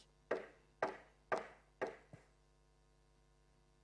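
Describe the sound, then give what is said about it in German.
Four firm, evenly spaced knocks on a wooden door, each with a short hollow ring, followed by a lighter fifth tap, with no voices and only quiet background between. “Vor unserer Tür steht er und klopft.”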